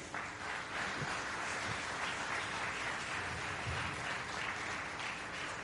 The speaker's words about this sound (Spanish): Démosle palmas al rey.